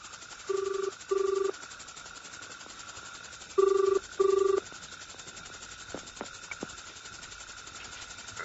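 A telephone ringing: two double rings, each a pair of short, steady electronic buzzes, with a pause between them over a faint background hiss. No one speaks.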